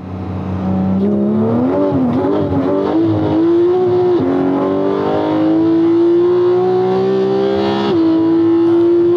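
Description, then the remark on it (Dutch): A sports car's 4-litre, 500 hp six-cylinder boxer engine revs up on a square with a loud, rising growl, its pitch climbing steadily over several seconds, dipping briefly between gear changes, with some wheelspin on the damp road and no one talking. “Deze heeft in ieder geval de 4 liter 6-cilinder eh, boxermotor, 500 pk, 0 tot 100, 3,4 seconden, top van 318 km per uur.”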